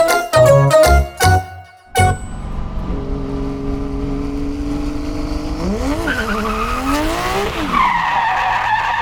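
A car's tires screech in a long, loud skid, preceded by a few sharp impact-like bursts, with the squeal wavering in pitch as the car brakes hard, nearly hitting an elderly woman crossing at a pedestrian crosswalk.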